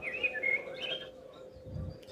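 A few quick, high whistled chirps, a signal to hurry up, sound in the first second, moderately loud, then trail off, leaving a steady low hum and faint rumble behind.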